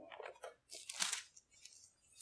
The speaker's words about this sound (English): Let's go. Let's hear those pages turn.